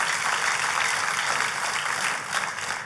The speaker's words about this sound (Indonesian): Kalau mau tepuk tangan, tepuk tangan yang paling meriah saudara.